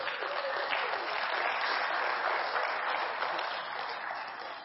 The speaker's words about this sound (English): Isn't it good to be back in church again? Amen. Let's clap real loud or something.